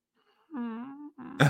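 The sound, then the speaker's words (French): A person's voice imitates a cat purring with a short, steady, humming rumble, ending in a rough, raspy throat burst. “si ton chat ronronne comme ça, pour vrai, il faut vraiment que tu l'amènes au vert.”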